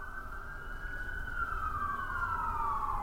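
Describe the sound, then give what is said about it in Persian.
An emergency vehicle siren wails steadily, its tone sliding slowly downward, heard faintly over a low background rumble with no voices. “معلم ورزش وقتی دهانش را روی دهان زن میگذارد و نفسش را بیرون میدمد صدای ضعیف آژیرها را میشنود مثل زنگ آویزهایی که در باد به صدا در میآیند”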